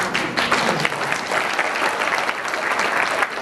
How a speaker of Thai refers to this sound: อ่ะมีเสียงปรบมือด้วย